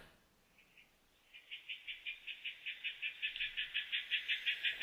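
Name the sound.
frogs croaking outside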